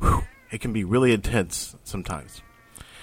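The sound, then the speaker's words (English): A cat named Shelly lets out a drawn-out, rising and falling meow, overlapping a person who talks quietly before and after it. “That's my cat, Shelly.”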